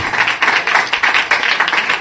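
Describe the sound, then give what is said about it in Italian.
A crowd applauds steadily to welcome musicians, many hands clapping in a dense, continuous patter that stays fairly loud and even for the whole stretch, with no one speaking over it. “tra poco li sentiremo proprio in versione musicisti ma adesso vorrei chiamarli qua con un applauso signori e signori”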